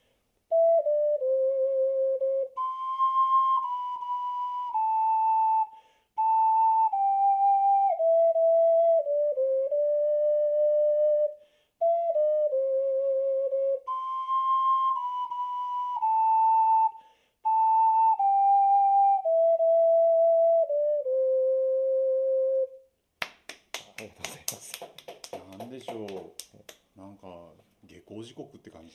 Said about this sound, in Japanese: あのオカリナの音色の一番の魅力はやはりこう長く伸ばした時の音色っていうんですかね、それが一番魅力なので心地よさといいますかね響き感っていうんですかねそういったところがいいのかなというふうに思いますけれども。